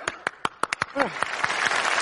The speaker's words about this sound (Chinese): 五、四、三、二、一，鼓掌！